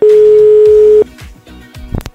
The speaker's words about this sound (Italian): dobbiamo chiamare una persona, mi hanno detto che è un po' diffidente, dobbiamo chiamarlo al telefono per eh, portargli una una dedica. Vediamo se ci risponde e soprattutto se ha voglia di ascoltarci.